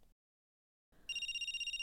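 After a moment of silence, a telephone rings during a short outgoing call with a bright, high-pitched electronic trill that warbles rapidly and steadily. No one speaks.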